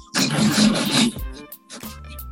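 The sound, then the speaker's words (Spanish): A voice imitates the clattering whir of industrial sewing machines in warehouses of a textile area near Ezequiel Fernández and Quilín in Macul, where jeans, aprons and kitchen cloths are made: a loud, harsh, buzzing burst about a second long, followed by a lower droning hum and a shorter second burst. “pero trabajo cerca de una zona textil donde hay galpones con unas máquinas”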